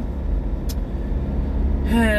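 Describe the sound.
Steady low road and engine rumble fills the inside of a moving car, with a brief faint hiss partway through and a man's voice starting to talk at the end.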